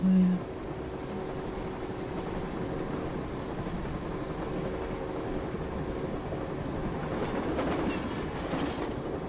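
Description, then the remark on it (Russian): A high-speed passenger train runs steadily along the rails, a continuous rumble with a faint rhythmic clatter and humming tones that swell slightly near the end. “Этот скоростной поезд каждый день заботливо доставляет пассажиров из точки А в точку Б.”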